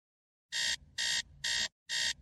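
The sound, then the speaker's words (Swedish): An alarm clock rings in four loud, evenly spaced electronic bursts, each a harsh, high-pitched buzzing beep about a quarter second long, waking a sleeper, with no voices. “Jag vaknade av att väckarklockan ringde.”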